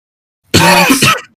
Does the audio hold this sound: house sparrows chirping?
no